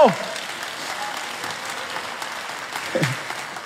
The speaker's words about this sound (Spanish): Deme un gloria a Dios, Dile un aplauso al Señor, diga algo.